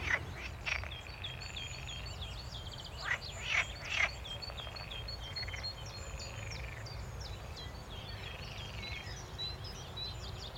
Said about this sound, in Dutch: Dit is echt wel een van de mooiste plekjes om even te gaan zitten. Ehm, en luister eens naar wat er allemaal uh, voor geluiden voorbij komen. Van kikkers tot vogels. Ehm, dit is echt wel een prachtig rustplekje.